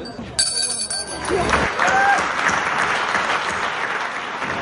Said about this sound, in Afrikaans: Nou, laat die klokkie vir ons almal om in te gaan om uit te vind wie die algehele wenner is.